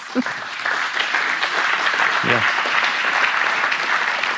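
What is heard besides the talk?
audience applause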